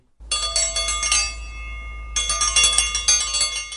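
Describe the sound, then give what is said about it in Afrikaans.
A small Victorian-era hand bell, rung to summon a servant from the kitchen, rings rapidly and brightly, jangling in two shaken bursts with its tone briefly lingering in between; no voices are present. “Wanneer die Victoriane iets uit die kombuis benodig het, het hulle eenvoudig in klokkie gelei sodat 'n bediende dit kon bring.”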